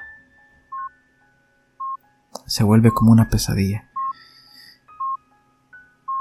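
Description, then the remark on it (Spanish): A steady electronic beep from hospital life-support machines sounds at regular intervals of about a second, clear, while a man speaks briefly in the middle. “Y he pensado que héroes son aquellos que están en este momento en los hospitales, con un familiar, con un amigo, con tu pareja, que tú la ves conectada a esos aparatos y ese sonido”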